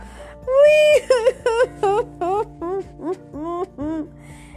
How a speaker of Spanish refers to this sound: Tintoba encontró a una bella muchacha. Estaba llorando, acurrucada contra el tronco de un árbol.